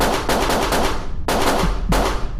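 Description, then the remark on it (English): Seven rapid gunshots are fired at a marshal, ringing out in a loud, harsh volley, the cracks coming in quick bursts with brief gaps between them and a dense, rumbling echo filling the spaces. No voices are heard. “At that moment, Thomas fired seven rapid shots towards the marshal.”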